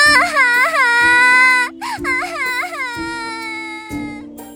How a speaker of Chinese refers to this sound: 望着小橘猫被吓哭跑远的背影，胖大星在树荫底下伸了一个舒服的懒腰，露出了心满意足的笑容。